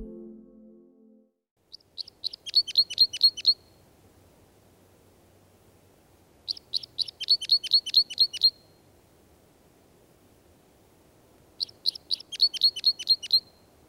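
Two-barred crossbill (pikkukäpylintu) calls: three bursts of rapid, high, dry chirping notes, each lasting about two seconds and repeating every few seconds, sounding clearly over a faint low rumble.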